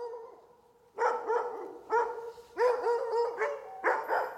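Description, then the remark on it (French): Several sled dogs at a dog-sledding tourism business bark and yip in excited, overlapping bursts, loud, coming in repeated waves after a brief quieter whine at the start, with no talking. “développer une entreprise récréo-touristique qui offre plein d'activités, mais surtout des expériences en traîneau à chien.”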